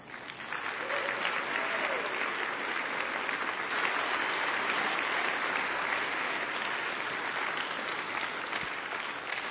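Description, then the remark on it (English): Sustained applause from a large church audience, a dense, steady wash of clapping that holds at an even loudness for the full length without pause, with no clear voices rising above it. “Uh, give those guys another round of applause.”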